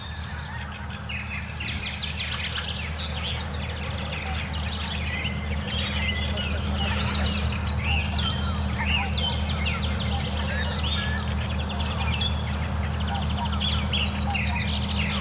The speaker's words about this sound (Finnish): Kuunnellaan nämä hanhet, Jos ne nyt sattus tulee tästä meidän edestä.